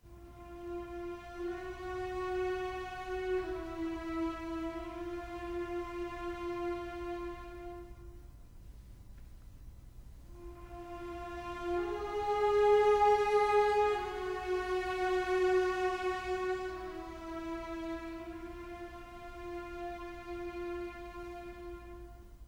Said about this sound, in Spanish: Vamos a ofrecerles primeramente el motivo que sirve de idea conductora a lo largo de toda la obra y que aparece ya nada más comenzar el Requiem Eternam de esta obra de Antonin Borsak.